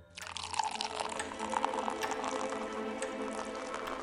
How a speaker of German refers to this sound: Horst gießt Mineralwasser in ein Glas.